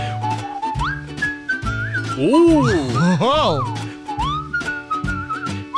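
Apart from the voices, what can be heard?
man whistling a tune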